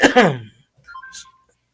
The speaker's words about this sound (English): uh oh, I got a message on my phone.